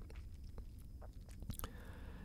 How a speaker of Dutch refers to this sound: En kijk ook wat je voelt als je zo slikt. Het kan soms wat moeilijk gaan. Ik doe het nu met je mee.